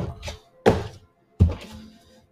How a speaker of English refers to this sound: One more shuffle.